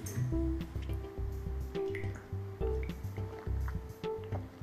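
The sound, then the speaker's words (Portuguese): Someone drinks water in steady gulps, a series of low wet swallows in an even rhythm with faint liquid sloshing and no talking. “Enquanto eu tomei uma água aqui, espero que você tenha pensado.”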